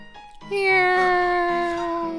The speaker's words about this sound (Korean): 이게, 이게 무슨 소리야? 아빠! 고양이잖아요!